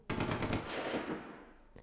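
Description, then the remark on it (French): A rapid burst of automatic gunfire in a war zone rattles from far off, heard from a kitchen, a quick string of cracks lasting about a second before fading into a rolling echo, with one faint pop trailing after. “Ça sert à rien d'essayer de se rendormir, et quand tu te traînes à la cuisine pour te faire un café, tu entends une rafale.”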